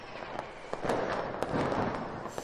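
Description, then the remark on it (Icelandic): Fireworks crackle and pop in a rapid, irregular series of sharp bursts over a continuous rumbling wash, with no voices present, set off on New Year's Eve. “Já, það er alltaf einhverju sem er að byrja að skjóta og maður er alveg bara, heyrðu við eitthvað?”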